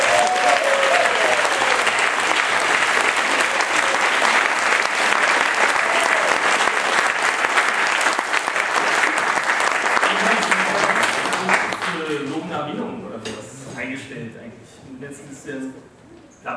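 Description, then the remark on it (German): Loud, steady applause from an audience at a comics award presentation, after a prize-winning short story is praised, fills the first twelve seconds as a dense wash of clapping, then fades while a voice begins speaking over the last few claps. “Applaus”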